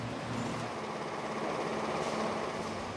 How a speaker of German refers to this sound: Während der Lärm der Druckerpressen durch die Holzwände des Büros dringt,